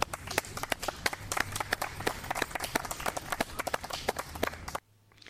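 A crowd at the Poets at Art Fest 5 Poetry Festival, part of Art Fest Kingston 2019, applauds after a poetry reading with dense, steady clapping full of sharp individual claps, holding fairly loud for about five seconds before cutting off abruptly into near silence.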